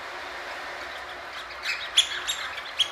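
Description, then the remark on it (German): A homemade whistle, believed to be made from old bicycle inner tubes, imitates small seabird calls: a few short, high, chirping peeps in the second half, the loudest ones sharp and separate, over a steady background hiss. “Diese kleinen Seevögel entstehen aus alten Fahrradschläuchen, glaube ich.”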